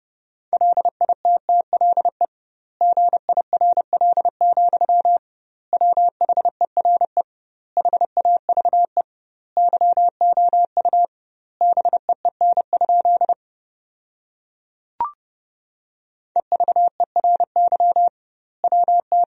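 Fast Morse code at 30 words per minute with double word spacing, sending sentences from the top 400 words, on a single steady mid-pitched tone, keyed in quick bursts of dots and dashes separated by short pauses, with one brief click partway through and no talking.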